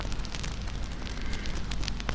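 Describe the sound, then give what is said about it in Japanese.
Steady crackling of burning firewood in a campfire, with frequent small pops and snaps over a low, continuous rumble of flames, with no one talking. “軽く目を閉じて揺れる炎燃える薪の匂い暖かな空気をイメージしてみてくださいゆらゆらと炎が揺れパチパチと小さく弾ける薪の音が聞こえてきます”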